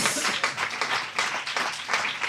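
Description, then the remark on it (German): A crowd applauds warmly, many hands clapping in a dense, steady patter that stays fairly loud throughout, with no voices standing out. “Einen warmen Applaus”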